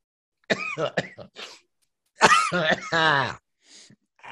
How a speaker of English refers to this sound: I'm sure the people just listening on audio love when I just start coughing into the mic. You know what I'm saying?